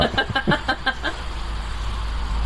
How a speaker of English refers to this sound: And we have lots of other friends with us today. Like that car that's driving by.